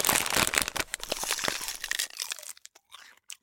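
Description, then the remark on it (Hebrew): A bag of Bissli snacks crinkles and tears open as someone starts eating, with dense crackling rustles for about two seconds, then a few sparse crinkles trailing off into quiet. “עכשיו אני אוכלת ביסלי.”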